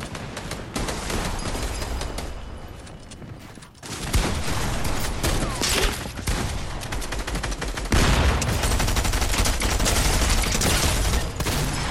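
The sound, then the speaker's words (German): Sustained automatic gunfire from a video game, dense rapid bursts that rattle on almost without pause, loud, growing heavier partway through with no voices over it. “Bro, wieder mal so traurig, er trifft jeden Schuss.”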